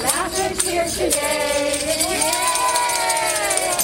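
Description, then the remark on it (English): Students are greeted outside with song and cheer as they go back to school, a group of voices holding sustained, wavering notes over a steady, lively crowd murmur, with a few sharp bursts near the start. “Outside, students are greeted with song and cheer.”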